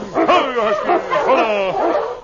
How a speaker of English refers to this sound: He stopped and turned as he heard the dogs.